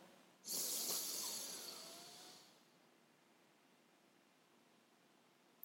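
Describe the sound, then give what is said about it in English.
A single long, deep breath drawn in through the nose during a breathing exercise: a loud airy hiss that starts abruptly and fades over about two seconds, then quiet. “When someone's just breathing down the podcast at you.”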